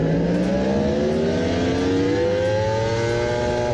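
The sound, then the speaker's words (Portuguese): A Yamaha R1 sport motorcycle engine screams at high revs during a lap of the racetrack in Goiânia, its pitch climbing steadily as it accelerates, loud throughout with no voices. “vamos passar então a volta do Breno lá em Goiânia, né? Vamos é, ver. Eu sou suspeito para falar dessa moto”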